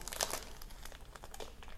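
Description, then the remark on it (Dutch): A package is opened with crinkly plastic rustling, a burst of sharp crackles at the start followed by quieter, irregular crinkles throughout. No one speaks. “Ik ga hem openmaken.”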